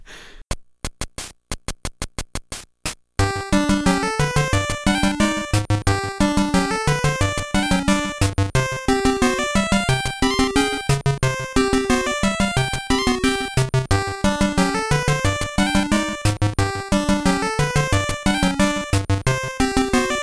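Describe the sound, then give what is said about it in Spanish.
After a quick burst of clicks, a cheerful, bouncy video game theme for an animal village plays on its own, with a bright looping melody over steady, rhythmic bass notes. “un tema como el. ¿Tú te acuerdas de la aldea de los animales? En el Link's Awakening original.”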